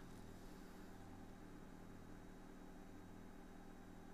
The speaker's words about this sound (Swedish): Så tusen tack för att du, du är här och lyssnar på min centrifugerande tvättmaskin i bakgrunden. Det verkar som det snart är dags att hänga lite tvätt.